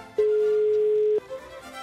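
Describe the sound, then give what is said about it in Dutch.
A single steady telephone tone, a clear mid-pitched beep lasting about a second, heard when calling the Venolijn answering line of the NPO Radio 1 programme Vroege Vogels, followed by faint background noise. “lijn En als je die lijn belt, dan klinkt het als volgt...”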